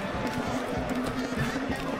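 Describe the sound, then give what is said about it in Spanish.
Quick, rhythmic footfalls of someone running, thudding steadily over a constant noisy background for the full two seconds. “¿Por, qué tengo que estar corriendo?”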